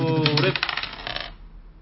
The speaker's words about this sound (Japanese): これアジアのダイスですね、これ。どうでもいい。はい。えー、いや、青、青と、青の目と赤の目が混じって。